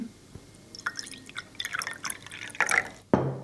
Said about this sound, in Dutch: Jij, schenkt nu, jij schenkt nu jouw filterkoffie in een kleiner, ja, het is een glas. Een glas, ja. Drink je filterkoffie uit een glas?